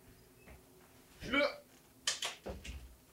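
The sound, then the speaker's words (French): A door is opened: a scraping, creaky swell, then a cluster of sharp knocks and rattles from the latch and frame, fairly loud against otherwise quiet surroundings. “Fallait que j'ouvre la porte.”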